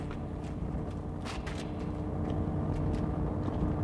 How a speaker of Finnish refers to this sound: Samperisää tulee takapäin. Ja on iso kuorma-auto.